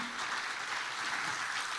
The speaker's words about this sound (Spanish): Dios Dios, si ese aplauso es para el Señor.